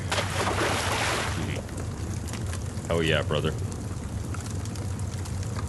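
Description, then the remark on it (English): A loud, broad rush of splashing water as a man falls off a sailboat fills the first second and a half, then fades into a steady watery background while a man briefly speaks. “you hurl this javelin, and it soars straight into his chest, and uh, you see him make a a pain sound, and he kind of falls off the boat into a big splash of water.”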